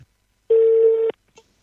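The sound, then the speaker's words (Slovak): A single steady telephone ringback tone sounds for about half a second, clear and fairly loud through a phone line, followed by silence and a faint click, as a congratulatory phone call is placed. “My tu máme ešte jednu gratulačku a možno ešte jednu, čo stihneme, možno nezdvihne, možno uvidíme.”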